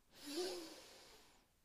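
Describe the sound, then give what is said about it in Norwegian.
A single long, deep inhale through the nose during a breathing exercise, a soft airy hiss that swells quickly and then tapers off gently over more than a second, with no talking; the breath is then held. “Pust godt inn med nesa,”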